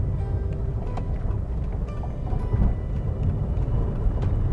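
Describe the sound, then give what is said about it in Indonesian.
A steady, heavy low-frequency rumble of a car interior on the move, constant and fairly loud, with faint clicks and rattles now and then and no voices. “Eh, saya recording di mobil lagi”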